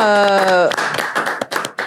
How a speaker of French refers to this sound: Je pense qu'on peut les applaudir en fait, parce que vraiment...